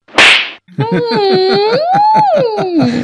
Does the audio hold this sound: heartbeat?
no